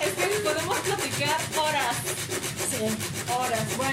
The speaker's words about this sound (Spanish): y el ruido que están escuchando de una resina que estamos lijando porque ¿qué creen que estamos haciendo este podcast en un taller en donde hacemos moldes y producciones de resina?